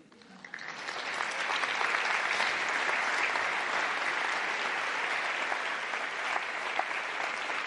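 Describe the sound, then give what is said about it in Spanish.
An audience breaks into applause, the clapping swelling quickly in the first second and then holding as a dense, steady wash of many hands until the end. “Pueden aplaudir, ¿eh?”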